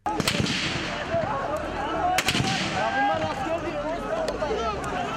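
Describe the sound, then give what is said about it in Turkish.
Several sharp gunshots crack out at irregular intervals from the General Staff headquarters in Ankara, Turkey, during a coup attempt, over a constant, dense outdoor din, with indistinct voices in the background. “Çok geçmeden Genelkurmay karargahından silah sesleri duyulmaya başladı.”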